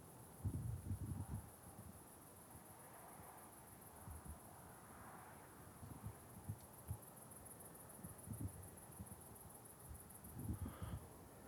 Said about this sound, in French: Il y a un peu de vent dans les, dans les arbres.